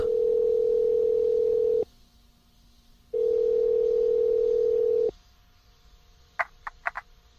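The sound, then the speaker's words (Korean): A phone ringback tone purrs twice, two steady, loud buzzing pulses of about two seconds each with a pause between, as a caller phones Bara Inn about a job advertisement, followed by a few quick clicks as the line picks up. “난 곧바로 전화를 걸었다.”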